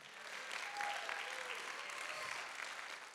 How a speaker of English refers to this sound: Somebody give the Lord a clap and a shout in here. Come on, a hey, passion life. Come on, give the Lord a clap and a shout in here.